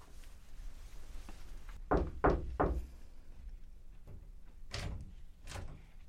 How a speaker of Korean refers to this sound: 들어가도 돼요? 혜미가 2층의 유재현의 방문을 조용히 열었을 때 재현은 재킷만 벗어놓은 채 화장대 앞에 앉아 있었다.